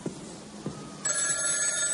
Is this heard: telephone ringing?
yes